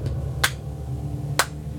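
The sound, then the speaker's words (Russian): Two sharp hand claps ring out about a second apart, sounding somewhat distant, during a game of hide-and-seek in a house, over a steady low background hum with no talking. “Отдаленно мы слышим два хлопка.”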